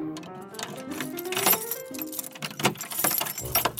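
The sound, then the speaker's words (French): A padlock is fastened on the door of grandmother's house in the tale of Little Red Riding Hood: metallic jangling and rattling, with several sharp clinks and clacks spread irregularly over a few seconds, moderately loud, with no voices. “Viens, nous allons fermer la porte et bien la cadenasser pour qu'il ne puisse pas entrer ici.”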